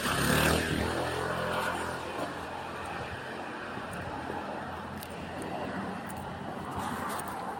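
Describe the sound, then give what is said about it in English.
A moped carrying two men buzzes loudly at the start as they try to snatch a phone from a pedestrian's hand, its pitch sliding down as it pulls away, leaving a steady wash of street and traffic noise. “That was the moment two guys on a moped tried to steal my phone out of my hand.”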